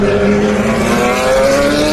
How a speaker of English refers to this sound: Isn't that lovely, the sound of the 911s and the Ferraris